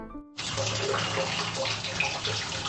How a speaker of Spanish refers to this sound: Y otro tema muy importante es que como yo vivo apenas a un metro sobre el nivel del mar, acá no hay mucha presión de agua, entonces el agua toca recolectarla como en una cubeta y bañarse pues e-, echándose agua con una cubeta más pequeñita